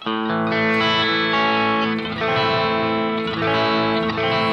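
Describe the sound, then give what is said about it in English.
An electric guitar with a distorted, effects-heavy tone strums sustained chords, alternating between an A major and an A minor, with a few chord changes ringing out loudly and no talking. “So you're sitting with a student or something, and what you want to do is just start taking something like an A major and an A minor and just learning to develop the ability to hear the difference between a major chord and a minor chord.”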